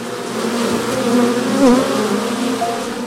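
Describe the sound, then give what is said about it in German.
A dense, steady drone of many bees buzzing together at the beehive stand of cabaret artist and beekeeper Erik Lehmann, a continuous humming swarm with wavering pitch and no voices, sounding almost like motorway traffic. “Ja, was wir hier hören, ist keine Autobahn aus größerer Entfernung, sondern das ist der Bienenstand von Erik Lehmann, Kabarettist, hauptberuflich und im Nebenerwerb ein Bienenhalter und Honigsommelier.”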